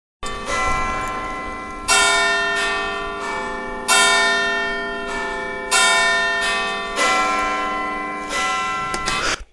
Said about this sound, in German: Und Big Ben Glockenspiel. So. Mal gucken, ob es jetzt gleich kommt.